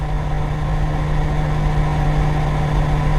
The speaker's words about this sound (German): Eine massive Klimaanlage.